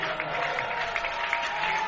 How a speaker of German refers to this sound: Während Alex Tunkara Kone äh, unter Applaus der Berliner Fans aus dem Stadion gefahren wird.